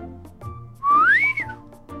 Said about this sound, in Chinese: 突然，门外传来了一声呼哨